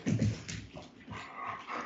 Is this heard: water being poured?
no